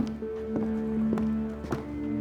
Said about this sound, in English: He walks into Rita's 28,000 square foot horse barn, passing beneath a huge RC painted above the entrance. Inside, he counts almost 40 stables.